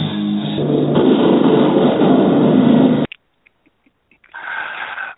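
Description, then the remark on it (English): A loud, dense explosion sound effect for a "dynasty depth charger" segment roars for about three seconds and stops abruptly, then after a brief silence a fainter, hissy rumbling echo effect returns. No one speaks. “Oh, I love the explosion.”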